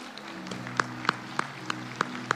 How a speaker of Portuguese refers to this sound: Aplaude a Deus por isso.